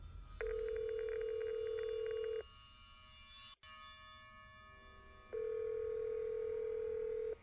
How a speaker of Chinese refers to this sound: 电话拨打过去了。